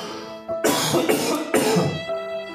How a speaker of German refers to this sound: Entschuldigung, du kannst da rausschneiden, das Gehustet.